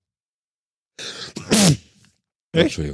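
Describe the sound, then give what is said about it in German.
A single sharp, loud sneeze, preceded by a short intake of breath, followed after a brief pause by someone speaking a few words. “Gesundheit.”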